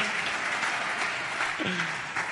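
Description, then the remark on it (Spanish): A crowd applauds steadily for the father, a dense wash of many hands clapping at once, with a voice briefly audible beneath the clapping. “Un aplauso para el papá.”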